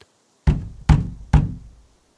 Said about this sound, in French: il arriva enfin hors d'haleine à la porte de la petite maison blanche et frappa. Personne ne répondit il frappa de nouveau, plus violemment, car il entendait approcher le bruit des pas de ses persécuteurs et leur respiration forte et haletante.